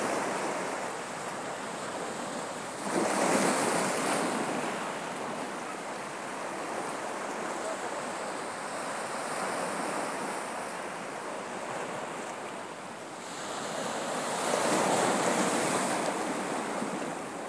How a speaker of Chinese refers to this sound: 你现在正坐在海边。听着大海的声音，那个波涛的声音，它的节奏